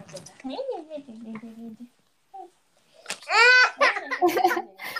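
A young child babbles in pitched, wavering vocal sounds, then after a short pause breaks into a louder, strained burst of crying-like wails, close and fairly loud.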